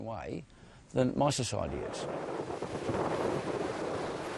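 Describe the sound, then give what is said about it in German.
A voice speaks briefly, then a loud, steady roar of tropical storm wind with rain and metre-high waves fills the rest, with gusts buffeting the microphone, on Restoration Island. “Mit Regen, Tropensturm und meterhohen Wellen.”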